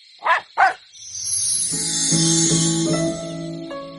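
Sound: dog barking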